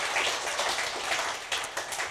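A crowd applauds for a pastor, with many hands clapping together in a dense, steady patter, holding a fairly even loudness throughout with a few sharper claps standing out. No one speaks.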